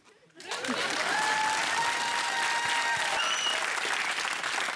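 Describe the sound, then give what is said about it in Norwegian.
A TV show audience applauds: steady, dense applause starts abruptly after a brief quiet moment and holds at a loud, even level, with a few faint tonal whistles or cheers rising over the clapping. “Jeg er klar med å berette, og ja, men jeg vender meg mot publikum for applaus.”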